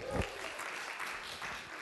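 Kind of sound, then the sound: crowd, applause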